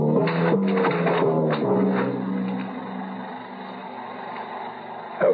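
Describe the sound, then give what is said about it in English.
A generator engine drones steadily, its hum wavering slightly in pitch early on before settling into a constant, somewhat muffled running tone with no voices. “I stumbled toward the sound of the generator.”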